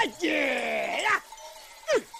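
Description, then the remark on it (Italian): A sheep lets out one long, wavering bleat lasting nearly a second, then a brief second bleat follows after a pause; fairly loud, with no talking. “della regia che non so chi sia a questo punto che metteva sotto il beh la pecora”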